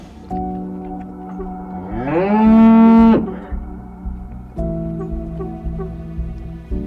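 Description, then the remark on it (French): A cow bellows a loud, drawn-out moo that swells upward in pitch, with steadier, quieter lowing from cattle before and after it. Nobody speaks. “Euh, puis elle avait un cœur sur la tête, un cœur blanc et tout.”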